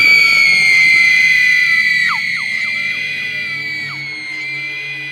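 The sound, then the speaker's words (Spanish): A woman screams in a long, piercing, high-pitched wail, loud, holding for several seconds with wavering, sliding pitch before fading slightly. “clavó la mirada en aquellas sombras jorobadas y de pronto empezó a gritar hasta quedarse en proporciones de mentes, hasta perder el conocimiento.”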